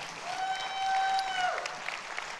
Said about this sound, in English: And um, yeah, you clap for him. Come on.